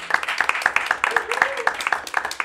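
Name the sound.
round of applause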